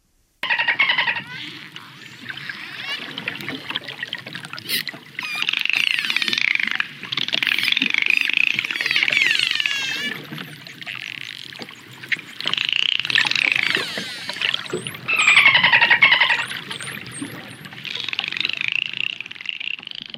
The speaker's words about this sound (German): Was wir da gehört haben, sind Delfine.